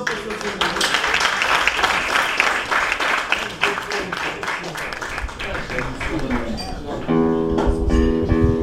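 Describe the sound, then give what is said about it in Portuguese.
A crowd applauds steadily for about seven seconds at an evening gathering at the República da Praça, a dense, sustained wash of clapping with some voices mixed in, before classical guitar music takes over at the end. “E para eles é uma salva de palmas.”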